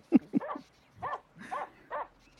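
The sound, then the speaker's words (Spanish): A dog named Ricky barks five times in quick, uneven succession, the first two sharp and punchy, the later ones more drawn out, moderately loud with no one speaking. “el perro Ricky haciendo su aparición ahí, su cameo.”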